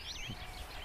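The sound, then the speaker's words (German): A common blackbird sings a short, fluty whistled phrase that swoops up and down over a low outdoor rumble, in the Saarland. “Ein das, das ist eine Amsel.”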